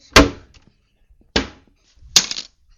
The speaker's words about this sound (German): Oh, jetzt ist ein Glas runtergefallen. Bestimmt ist sie jetzt aufgewacht.